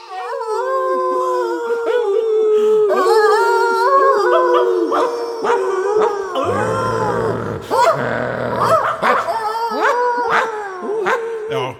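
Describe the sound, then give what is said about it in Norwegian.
A dog howls loudly in long, wavering tones that rise and fall, with a rougher, throatier stretch partway through before the howling resumes. “Er det ikke sånn at hunder ofte uler de koser seg med musikk?”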